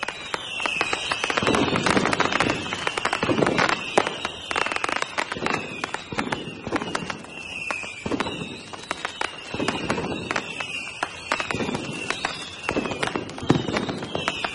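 A dense, continuous barrage of Fourth of July fireworks in New York: sharp bangs and crackling pops firing in rapid, irregular succession, loud, with no pauses or talking.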